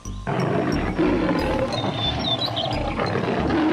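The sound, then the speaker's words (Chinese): A jaguar lets out a loud, rough, sustained roar that starts abruptly and rumbles on for over three seconds without a break, with faint high chirps briefly audible in the background. “随后，他又高声吼叫：“ 你敢跟我一比高低吗？”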